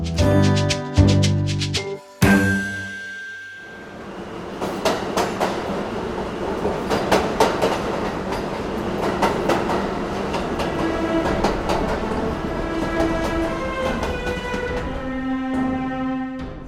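An underground train rumbles steadily along the rails, its wheels knocking out irregular clattering beats over a dense roar. A short burst of tonal sound comes first. Nobody speaks.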